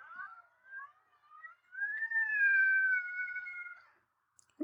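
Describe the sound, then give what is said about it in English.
A door creaks open slowly in one long, drawn-out squeal that rises in pitch and holds for a few seconds, clear, followed by a faint click as it stops. “That was the door. It sounded like a creaking, old fashioned, scary movie door.”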